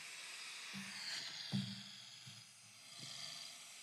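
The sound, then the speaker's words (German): Deep, low rumbling snores from a recording held up to the microphone come in several short rasping bursts over a steady background hiss, sounding faint and like a played-back recording. “Also ich schnarch also sehr tief, so.”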